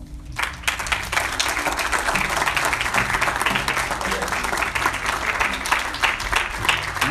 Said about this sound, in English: And uh, here at Immanuel, we appreciate what you guys have done. So um, give the person beside you a round of applause.